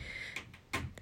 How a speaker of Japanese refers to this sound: 猫がうるさい爪を研いでいる